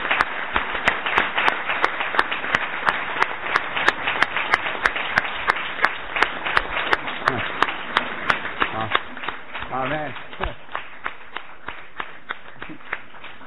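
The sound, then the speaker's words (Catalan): Sustained applause from an audience in a council plenary hall for the choir singers as they enter, at the opening proclamation of the Festa Major of Sant Fruitós de Bages; dense overlapping claps continuing steadily, then thinning toward the end as a few individual claps and some voices remain. “Un aplaudiment per la coral.”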